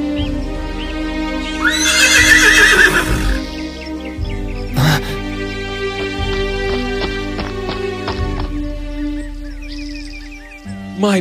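A horse whinnies loudly and shrilly near the start, followed by scattered sharp clip-clopping hoofbeats on a hard surface over a low, steady background hum.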